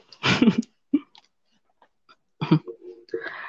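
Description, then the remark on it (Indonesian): Two harsh coughs roughly two seconds apart, each followed by brief throaty voiced sounds and short clearing noises, with quiet gaps between. “iya, gue dari tadi batuk-batuk”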